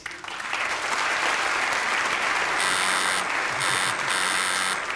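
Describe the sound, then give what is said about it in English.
A quiz buzzer sounds three times in quick, uneven bursts, a harsh, bright electronic tone cutting through steady loud applause that fills the whole clip. “Alan, you buzzing to say that I do thank Simon?”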